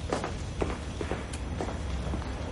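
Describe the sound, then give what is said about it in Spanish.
A woman's footsteps walk steadily away at an even pace, each step a soft thud against a low, constant background hum, with no voices present. “Lo besa en la mejilla y se aleja.”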